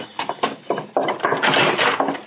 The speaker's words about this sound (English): I shut the door behind me and run up the stairs into the meeting room.